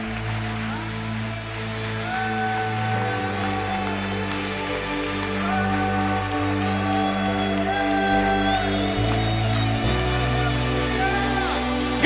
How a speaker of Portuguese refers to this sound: Aplauda o Senhor nessa noite. Aleluia!